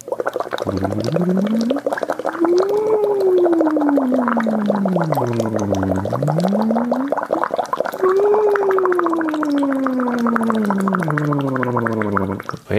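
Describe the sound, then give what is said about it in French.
As a vocal exercise, a voice hums a slow siren through a straw into water, pitch gliding up and down in long sweeps into the high notes, over a steady, continuous bubbling gurgle kept at a constant level, with no talking. “Maintenant, je vais prendre la, mélodie avec la note qui m'embête et euh, je vais la faire dans la paille en surveillant mes bulles.”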